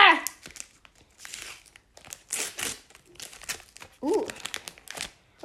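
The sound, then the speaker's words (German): A foil sticker card packet holding five cards crinkles and crackles as it is torn open, in irregular bursts of bright, papery rustling, with brief bits of voice mixed in. “Es sind immer fünf Karten in einem Pack Päckchen.”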